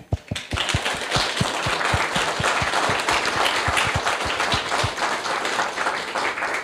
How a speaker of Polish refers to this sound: Więc dziękujemy ślicznie jeszcze raz Fundacji imienia Kazimierza Łyszczyńskiego za możliwość wystąpienia tutaj dzisiaj przed Państwem. Wielkie brawa dla Fundacji.